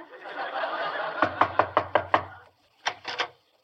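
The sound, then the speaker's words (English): Six quick, evenly spaced knocks rap on a door instead of ringing the bell, followed after a short pause by three more, fairly loud over a faint room hiss. “Don't ring the bell. Can't you read the sign? Maid sleeping. I'll knock.”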